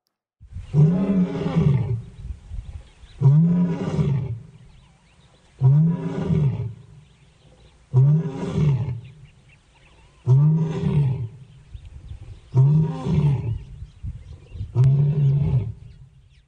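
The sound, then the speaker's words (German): A lion roars in a series of seven deep, rumbling bursts, evenly spaced about two seconds apart, loud with no voices. “Und wie er brüllen kann, habe ich gegoogelt und da ein Beispiel mitgebracht.”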